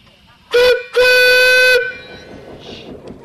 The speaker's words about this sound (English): People like to like to wave at you and like you to blow the whistle as well. Well, let's have a blast then before we go.